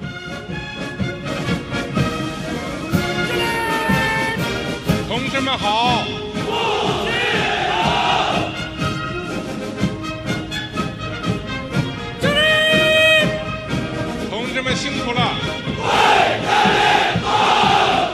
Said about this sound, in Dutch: met dan eh, Xi Jinping erin. Die dan op een gegeven moment iets brult in de richting van de soldaten. En die brullen dan allemaal terug. En dan storten bijna huizen in, zou je zeggen. Want dat is zo'n enorm kabaal.